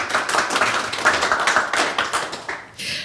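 An audience at the Literaturhaus Stuttgart applauds steadily, a dense wash of many hands clapping with sharp individual claps poking through, fairly loud and continuous before tapering off at the end. No one speaks.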